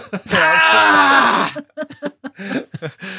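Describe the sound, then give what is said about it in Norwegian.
A man lets out a loud, drawn-out groan lasting over a second, strained and resigned in tone, made as he gives up and throws in the towel; a voice starts talking right after. “det høres ut som et esel, liksom.”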